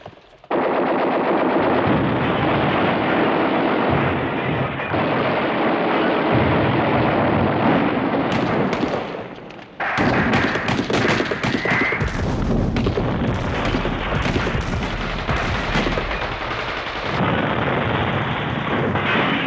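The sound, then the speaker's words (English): A dense, nonstop barrage of machine-gun fire and heavy weapon blasts, loud, drops briefly into a lull around the middle, then erupts again with sharper cracks and booms. These are sounds of different kinds of weapons evoking the Second World War. “then it comes like Second World War, and it's only sound from different kind of weapons.”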